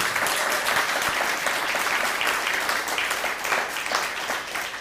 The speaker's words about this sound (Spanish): Un fuerte aplauso ahora sí a todas las naciones. Ah, pero que se escuchen.